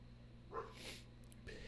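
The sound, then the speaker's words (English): A dog gives a quick, faint bark or two at a deer, short and sharp, over a steady low background hum with no one speaking. “the dog see a deer.”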